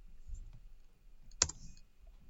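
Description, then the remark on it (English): A single sharp click from a computer button or mouse stands out against a quiet background with faint low rumble and a few softer taps; no one speaks. “I'm bad at clicking buttons. Let me just send you an image.”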